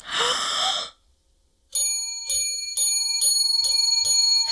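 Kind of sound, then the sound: sound effect, bell ringing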